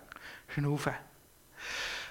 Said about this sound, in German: Ähm, wenn so ein Angstimpuls kommt, dann, äh, eben, dann geht die Chemiefabrik los und das hat viel zu tun mit unserem Schnaufen. Also das beste Medikament gegen Angst ist eigentlich Luft, Luft Schnaufen.